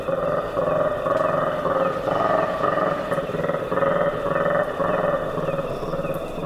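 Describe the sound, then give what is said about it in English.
In the Kakamega Forest in Kenya before dawn, a troop of colobus monkeys gives contact calls as they regroup to search for breakfast. The calls form a dense, continuous chorus of throaty, rolling croaks that pulse steadily, loud and echoing across the forest canopy, with a faint insect hum behind. “The troops' vocalizations echo across the jungle canopy as they regroup and start their search for breakfast. These contact calls were recorded by Douglas Quinn.”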